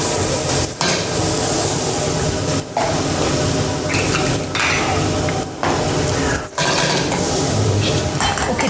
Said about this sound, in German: wieder in die Pfanne, da ich jetzt, sind jetzt unsere dreifärbigen Karotten zusammen mit Rotkraut, Brutzeln da drinnen und wird schon? Wird schon, ja.